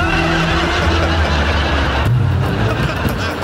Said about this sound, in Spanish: Oigan, ahí viene un carro, se ven las luces. Oye, ¿no será un food truck? Una lonchera con tacos. Mm. Y viene para acá.